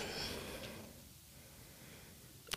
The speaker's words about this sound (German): Kann dann dort diese Übung auch in den Alltag integrieren, weil man kann dieses Atmen, das muss man nicht geräuschvoll machen, wir haben es jetzt getan.